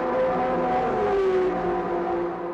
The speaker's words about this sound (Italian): Sì, però sono stati i momenti più esaltanti di Monza, quelli dei grandi prototipi. C'era il matrà azzurro, c'era... Sì, la, con 12 cilindri urlantissimo. Urlantissimo, c'era le Ferrari rosse, le Porsche bianche